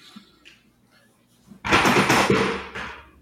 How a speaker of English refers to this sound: my chair lowered, and I uh, I hit the wrong lever. I was going for the lumbar support, and I hit the … button.